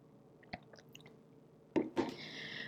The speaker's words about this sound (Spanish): Déjenme tomarme un sorbito y ya.